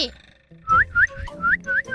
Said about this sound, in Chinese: 大盗七号啊，吹口哨把鹦鹉叫出来。